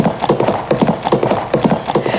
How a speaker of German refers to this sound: Juhu, diese Ponys sind so schnell.